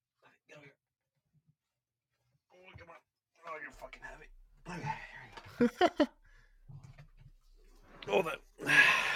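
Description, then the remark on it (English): A dog named Poppy, a Chihuahua mixed with a pit bull, pants in quick, breathy bursts, starting soft and growing louder and heavier toward the end, with a person's faint voice murmuring in between. “Yeah, he's a uh, so he's a Chihuahua mixed with a pit bull.”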